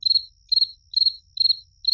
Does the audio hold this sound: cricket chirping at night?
yes